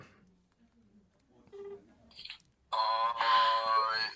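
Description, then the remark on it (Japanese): A phone call to Tokoro-san ringing out: a few faint beeps, then a loud, steady electronic ringing tone that starts abruptly and continues to the end, with no voices. “ちょっと、えー、電話してますよ 絶対ね、あのもう昨日電話してあるから、はい、間違いないんですが。”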